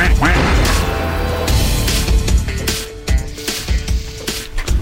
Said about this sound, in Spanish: Los patos cuaquean. Los sí, hacen cuac. Hacen cuac. Cuaquean.